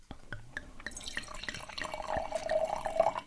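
Classic Rioja wine pours into a glass, starting with a few soft drips and building into a steady gurgling stream whose pitch rises as the glass fills, with no voices.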